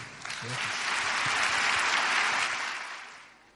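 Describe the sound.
An audience bursts into sustained applause welcoming a speaker, a dense wash of clapping that swells, holds steady for a few seconds, then begins to fade, with faint murmuring voices underneath.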